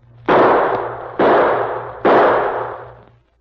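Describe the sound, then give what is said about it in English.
Three loud gunshots fired as a signal, in quick succession, roughly a second apart, each a sharp crack trailing off in a long, rumbling echo. No one speaks. “I'll signal once again before the sun sets.”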